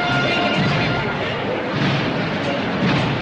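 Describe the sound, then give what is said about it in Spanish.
A loud, dense wall of band music from the Ciudad de Jaén symphonic band, with heavy drums and brass blaring continuously, the sound thick and rumbling throughout, like a procession march played by a full band. “Eh, sonidos interpretados por la banda sinfónica Ciudad de Jaén.”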